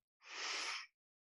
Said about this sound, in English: Just taking a few deep breaths with me.